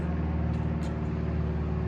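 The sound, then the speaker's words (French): A small airplane drones overhead, passing over a place at the ocean's edge, its low engine hum steady and unbroken with a faint buzzing edge, holding an even loudness throughout with no voices. “Est-ce que ce n'est pas merveilleux que des endroits comme ceux-là existent toujours au bord de l'eau, au bord de l'océan à la bonne franquette, avec un petit avion qui passe au-dessus”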